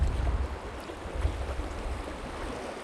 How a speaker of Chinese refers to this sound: 这块岩石离海浪非常近，我可以望着海浪拍打在岸边，或者他们互相冲击